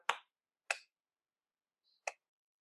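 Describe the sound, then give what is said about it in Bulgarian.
Three sharp hand claps, close and crisp: two in quick succession, then a short pause before the third. No voices. “нали, три плясъка и бързо да си дадат пълтата.”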